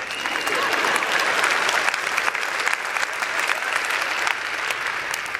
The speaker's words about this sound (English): Fans aren't gatekeepers. Y'all can clap.